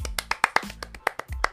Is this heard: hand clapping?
yes